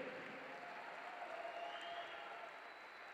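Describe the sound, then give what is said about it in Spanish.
An audience applauding the Lord steadily, a dense wash of many hands clapping at once that holds an even level throughout, with no voices standing out above it. “Vamos, apláudele fuerte al Señor. Vamos, apláudele.”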